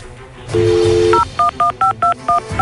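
signal or alarm, telephone keypad dialing tones

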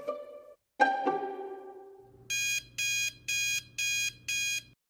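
household object, alarm clock ringing

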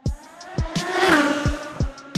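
vehicle, race car engine revving

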